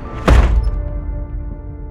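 A single heavy door slams shut, a sharp, loud thud followed by a low, lingering resonance that slowly fades. No one speaks.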